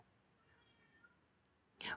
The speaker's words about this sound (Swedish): Ja, förlåt, katten har fått ett tuppspel.